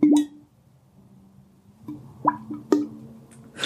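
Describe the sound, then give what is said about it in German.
A voice imitates a fish with a series of wet mouth plops, several short popping clicks spaced irregularly, fairly loud, with no talking. “Ich habe jetzt nur diesen Fisch nochmal vorgeführt, aber gut.”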